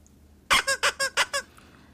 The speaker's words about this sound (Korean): 와, 우리 엄마 소리 잘 낸다. 엄마 재밌어? 어, 재밌어, 재밌어. 그래, 엄마. 뿅뿅 소리 나는 인형 이거 열심히 갖고 노는 거야. 이거 열심히 음. 하면 마비된 엄마 손 많이 풀어질 거야.